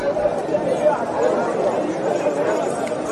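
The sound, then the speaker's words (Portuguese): A crowd shouting at Pilate, who wanted to release Jesus: many voices clamoring at once, a dense, steady roar of overlapping shouts with no pauses, holding at an even loudness throughout. “Depois disso, Pilatos queria soltar Jesus, mas a multidão gritou:”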